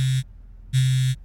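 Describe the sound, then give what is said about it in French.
A mobile phone vibrating: two loud, rattling buzzes, a short one followed by a longer one after a brief pause, with no voices. “Mon portable vibre.”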